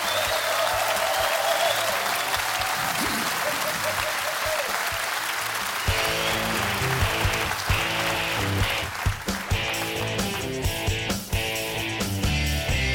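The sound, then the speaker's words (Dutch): A crowd in Ninove applauds steadily to welcome the core members of cycling club Wielerclub Wattage, a dense wash of clapping that holds for the whole stretch, joined about halfway through by loud, punchy music with a thumping beat playing underneath. “Graag je applaus”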